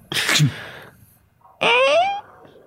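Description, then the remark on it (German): A voice imitates small electrical sparks from a short circuit, first with a short, sharp hissing burst, then after a pause a rising, squealy tone. Both are fairly loud. “Und du machst das und und so kleine, kleine äh, Funken, Funken kommen raus und ihr hört nur.”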